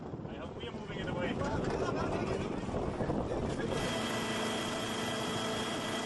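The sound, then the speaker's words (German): Busy harbor ambience with many boats mooring: a steady wash of water and wind noise with boat engines rumbling and humming, a droning tonal engine sound joining partway through, and indistinct voices mixed in. “Im Hafen machen viele Boote fest.”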